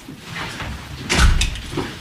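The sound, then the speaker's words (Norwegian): A courtroom door opens with a soft mechanical clunk and a brief rushing sweep as the judge comes in through it into a very small courtroom, followed by a quieter rattle, with a low background hum and no one talking. “Dommeren kommer inn døren.”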